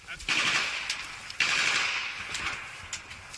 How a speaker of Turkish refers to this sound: İşgale direnen Ukrayna güçleri Kiev dışında bir Rus birliğini pusuya düşürdü. Açılan ateşte Rus askerleri zırhlı araçlardan indi. Yere yatarak saldırıdan korunmaya çalıştı.